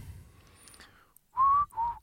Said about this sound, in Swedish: Du kan inte vissla.